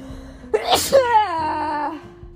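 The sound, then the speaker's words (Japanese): A single loud sneeze: a sharp breathy burst followed by a short voiced, wavering exhale trailing off. “ちょっと待ってくしゃみきそう”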